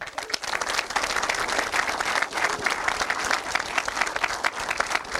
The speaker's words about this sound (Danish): Giv dem lige en ekstra sidste hånd.